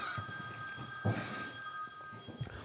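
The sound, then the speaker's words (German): A telephone rings steadily throughout, its bright bell-like tones sustained and fairly quiet, with a few soft low thumps of background movement. “Jetzt wieder Telefon.”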